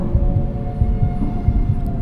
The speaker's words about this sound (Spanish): reducir los latidos de mi corazón para que no se oyeran